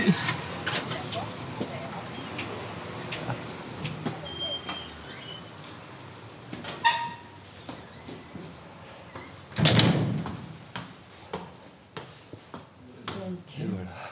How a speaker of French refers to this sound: Euh, non, c'est juste que euh, tu m'ouvres la porte. Je t'ouvre, je t'ouvre. Merci.